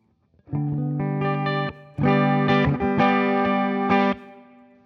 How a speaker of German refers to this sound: Wie klingt das äh, Gitarrensignal, das Clean mit und ohne Kompressor, also jetzt ohne?